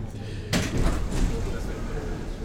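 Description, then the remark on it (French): A metro train door slides shut with a sudden loud thud about half a second in, followed by rumbling station noise and indistinct voices in the background. “là, on est dans une vraie station, parce que la porte se ferme.”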